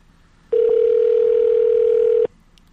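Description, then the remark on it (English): A steady telephone dial tone drones for nearly two seconds after a call drops, one unbroken mid-pitched hum that starts and stops abruptly, with no voices over it. “See, we must have got disconnected.”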